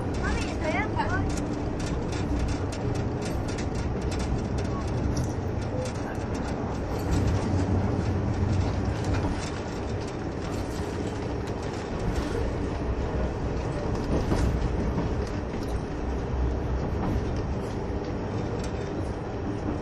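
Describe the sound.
A KiHa 71 series diesel express train, the Yufuin no Mori No. 3, runs steadily along the rails between Yufuin and Beppu, Japan: a continuous low rumble and rattle with faint rhythmic clatter that holds level throughout. Indistinct voices murmur faintly underneath.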